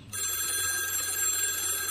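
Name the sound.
telephone ringing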